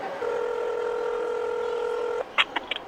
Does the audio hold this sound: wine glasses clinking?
no